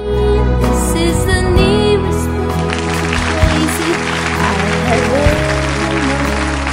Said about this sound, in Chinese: 呃，在晚安之前啊，这个要说一件事儿，那个先别鼓掌了，停停停。